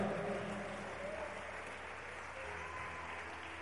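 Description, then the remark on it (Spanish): An audience at a church service applauds God steadily, a dense wash of many hands clapping at an even level for several seconds with no one speaking over it. “Le paro un fuerte aplauso a Él, aleluya.”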